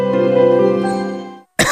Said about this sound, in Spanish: Noche de tos.